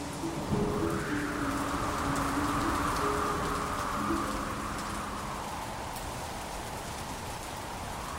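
A sudden gust of wind sweeps through steady heavy rain, swelling loudly in the first few seconds before easing into a constant downpour, with faint low tones briefly underneath.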